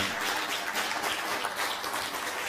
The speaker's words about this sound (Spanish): Dale un fuerte aplauso al bendito sea.